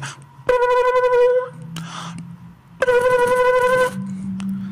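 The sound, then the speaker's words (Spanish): A home telephone rings twice, each loud ring lasting about a second with a short pause between, over a low steady background hum. “como en la casa que de repente suena el teléfono, ¿no?”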